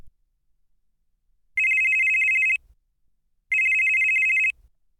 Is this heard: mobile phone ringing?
yes